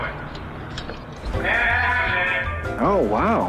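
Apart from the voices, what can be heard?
cat meowing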